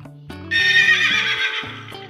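A horse gives a loud, bright whinny lasting over a second, while hooves clip-clop in a steady rhythm underneath, clear with no voices.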